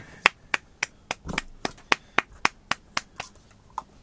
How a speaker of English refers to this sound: Golf clap.